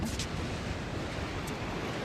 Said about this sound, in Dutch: Het is aflandig, dus alles waait eh, de zee in.